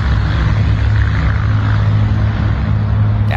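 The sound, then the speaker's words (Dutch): A loud, steady drone of an old propeller airplane engine practicing a go-around at Preda Airport, with a deep throbbing hum and broad roar that holds constant throughout, and no voices. “Het duurt eventjes voordat je hem echt hoort qua motorgeluid. Dus eerst gaat hij landen, zijn een soort doorstart aan het oefenen”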